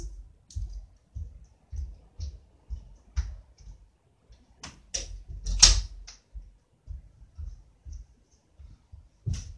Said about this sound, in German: Da bin ich wieder. Ich muss kurz ähm, die Tür wieder zumachen.